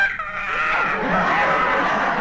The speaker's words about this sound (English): ah, that bird again. Shut up, you molting pest.